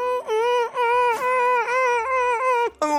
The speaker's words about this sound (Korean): 울지 마, 울지 마, 울지 마, 울지 마, 울지 마.